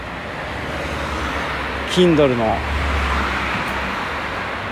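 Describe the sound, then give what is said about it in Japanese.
Steady roadway noise with a low rumble of many cars passing on a road in Morocco, a continuous wash of traffic throughout. A person speaks briefly over it midway. “めっちゃ車来た”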